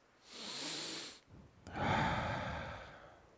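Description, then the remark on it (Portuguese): A person imitates the breathing of Jesus in the sepulchre in Jerusalem: a long airy inhale followed by a fuller, louder exhale, breathy, with a short pause between them and no talking. “O silêncio do sepulcro em Jerusalém é rompido, é quebrado pelo som da respiração de Jesus.”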